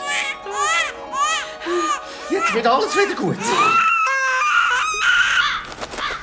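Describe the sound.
A baby wails in loud, rising-and-falling bursts, several cries in quick succession, then an adult voice speaks soothingly while the shrill crying continues underneath.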